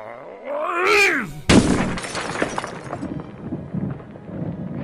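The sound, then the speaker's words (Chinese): A rising, wavering tone gives way to a sudden loud crash as Moses throws down the two stone tablets bearing the Ten Commandments, which smash on the ground at the foot of the mountain, followed by a scatter of rattling, clattering debris that slowly settles. “法板撞在地上。发出了巨响，结果周围的人一听到，都安静了下来。”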